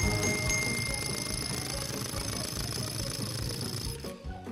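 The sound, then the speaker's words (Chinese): An electric drill, used by a downstairs neighbor renovating their home, whirs loudly and steadily with a harsh, rattling buzz for about four seconds, then cuts off abruptly near the end. “我们楼下的邻居在装修房子，刚才应该是电钻的声响。”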